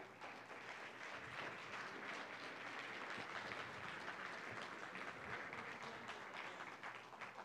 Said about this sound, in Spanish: ¿Puedes darle un aplauso a Dios por eso?